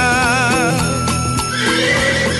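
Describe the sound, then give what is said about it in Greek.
A horse of a two-horse carriage lets out a loud, quavering whinny, followed by a few sharp hoof clops over a dense, busy background. No one speaks. “Πάμε, παίρνουμε αμάξι, ε. Ένα όμορφο αμάξι με δυο άλογα”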